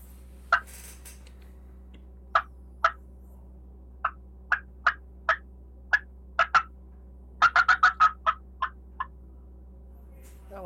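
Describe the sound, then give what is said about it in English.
A wild turkey hen cackle meant as an old hen but rising somewhat toward an intermediate hen: sharp clucks spaced irregularly, then a quick run of rapid notes before a few trailing clucks, heard alone over a faint steady hum. “that one kind of got up into the intermediate hen a little bit.”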